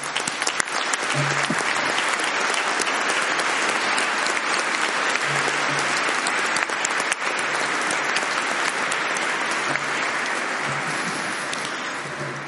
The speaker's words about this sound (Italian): Siamo noi che dobbiamo fare un applauso a lui e a tutta l'aeronautica e lo facciamo dal profondo del nostro cuore. Grazie.